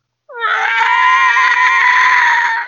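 A winged dragon-like creature with long leathery wings and a pointy head lets out one loud, sustained screeching shriek as it flies off. The shriek sweeps up sharply at the start, holds steady for over two seconds, then cuts off, with no voices around it.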